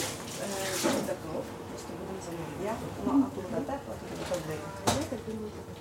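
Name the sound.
water running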